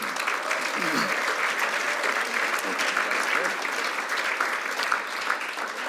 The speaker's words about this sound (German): Und wir wollen euch ganz, ganz herzlich danken. Ein Applaus wäre sicher mal angebracht.